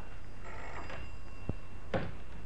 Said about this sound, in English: Oh, crikey, the phone. Here, what do we do about that? Let it ring, I suppose.